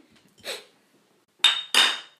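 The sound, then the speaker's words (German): Glasses clinking together in a toast: a soft first tap, then two sharper, ringing clinks in quick succession, with no voices. “hier ausartet in nur noch Anstoßen, Brusten und Dankeschön und weiß der Geier was.”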